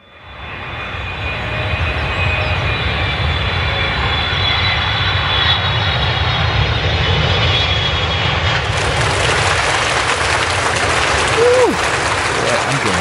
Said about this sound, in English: Ladies and gentlemen, we do thank you very much for your attention, and now we invite you to sit back, relax, and enjoy the takeoff.